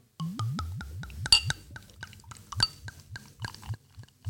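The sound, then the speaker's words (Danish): The drink Smagen af et yndigt land glugs out of a bottle in a quick series of low, gurgling bursts, steady at first and then looser and more uneven, with a faint clink partway through and no talking. “Der er flow i den flaske der.”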